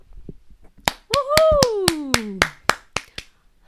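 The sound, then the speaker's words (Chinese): A quick run of about a dozen sharp hand claps in a steady rhythm, celebrating a channel's first anniversary, with a voice letting out a long cheering cry over the middle that slides downward in pitch. “就是呢，人蜘蛛这频道夯不啷当也一周年啦，掌声！”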